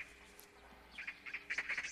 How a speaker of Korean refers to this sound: 너무 시끄러워요. 네? 뭐가요? 지금 저기 들리는 까치 소리요. 까, 까치요? 까치 좀 조용히 시켜주세요.